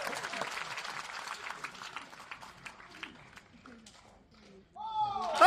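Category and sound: crowd, audience applause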